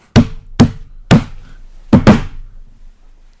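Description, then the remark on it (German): Five sharp, fairly loud knocks on a wooden table, evenly spaced at first and ending with a quick double knock; no voices. “Ich klopfe jetzt wieder auf den Tisch.”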